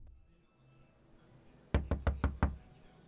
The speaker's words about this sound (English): See, it all started one day when I was just sitting on my couch, watching TV, and there was a knock at my door.